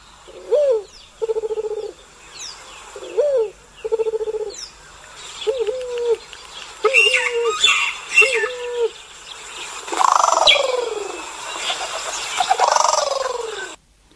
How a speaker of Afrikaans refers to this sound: En wat hy dan 'n ringnek noem, is daar twee moontlikhede. Een is die rooi oog tortel wat so klink.